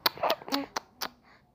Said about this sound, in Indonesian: kenapa bibirmu manyun-manyun mm. hmm Oke, pagi ini kita belajar teknik berkecap bersama TikTok TikTok, tau nggak? bibir tuh bisa gitu nak bisa berbunyi berkecap